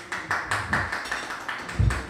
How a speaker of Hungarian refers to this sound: már be is gyűjtöttük az első tapsot. De ez egyébként igen, ez az élő közönség varázsa